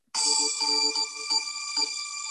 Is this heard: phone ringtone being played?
yes